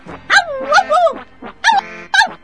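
A dog barks and yelps in a series of sharp, high-pitched bursts, with a drawn-out whining stretch at first and then a few quick separate barks, close and fairly loud.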